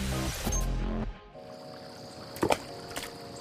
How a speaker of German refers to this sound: So in etwa klang es, wenn ich als Kind versucht habe, einen Stein über das Wasser eines Stausees in meiner Heimat hüpfen zu lassen. Daher muss ich sagen, fand ich Steine flitschen eher frustrierend.